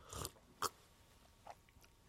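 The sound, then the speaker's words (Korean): Several quick, soft sipping sounds, spaced out with short quiet pauses between them, like someone taking small repeated sips from a drink. No one speaks. “어, 어, 홀짝홀짝 잘도 마시네.”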